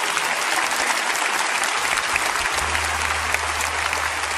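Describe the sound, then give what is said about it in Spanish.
Steady applause from a crowd, a dense wash of many hands clapping that holds at a constant loud level throughout, with a low hum entering partway through. “Denles un buen aplauso y si gustan pasar.”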